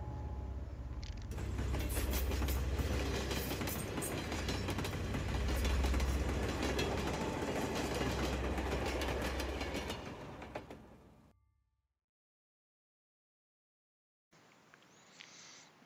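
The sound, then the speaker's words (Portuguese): The midnight train rumbles past with a steady clickety-clack of wheels on the rails, loud for about ten seconds before fading into silence; a quieter background sound follows. “o trem da meia-noite.”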